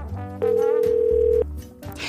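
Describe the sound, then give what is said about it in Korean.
A phone line tone while calling back a missed call from an unknown number: one steady, fairly loud electronic beep lasting about a second over a low background hum, followed by quiet. “제가 부재중 전화를 보고 연락드렸는데 누구세요?”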